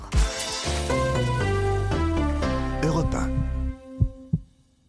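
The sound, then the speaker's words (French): A bright musical jingle fades out, followed by two muffled low thumps of a human heartbeat near the end, clear against the quiet. “Aujourd'hui, on va chouchouter notre organe, peut-être le plus important, vous l'entendez, c'est notre cœur.”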